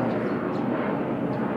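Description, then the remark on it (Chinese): A steady, low airplane roar rumbles overhead outdoors in Dulan, which lies on an aircraft flight path, a broad continuous drone with heavy low end that stays even in loudness for the whole moment, with no voices over it. “我没有听清楚你讲什么，飞机刚好飞过去啊！”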